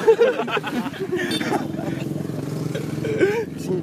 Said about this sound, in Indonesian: ini motor-motor aja.